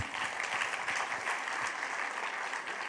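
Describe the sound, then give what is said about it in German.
A crowd applauds a participant who gave the correct answer in a quiz, a dense, continuous wash of many hands clapping at an even loudness for the whole stretch, with no voices standing out. “Dicken Applaus für dich.”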